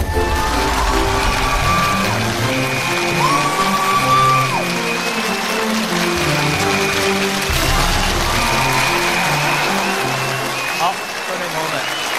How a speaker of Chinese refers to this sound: 掌声有请我们今天的演讲嘉宾，万科集团董事长王石，有请。